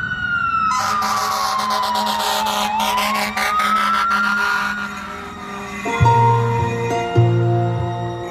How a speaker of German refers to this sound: Jetzt hört man die Feuerwehrsirenen.